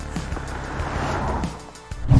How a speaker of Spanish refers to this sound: A las 3 de la mañana pasa un coche y se oye un peculiar synth pop.